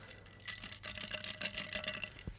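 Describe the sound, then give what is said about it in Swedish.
A drink sloshes and rattles inside a stainless steel shaker, a quick run of bright, irregular clinks and swishes, ending with a soft thud. “Din drink som du dagen till ära dricker i en eh, rostfri shaker. Ja. Får vi höra lite shaky shaky?”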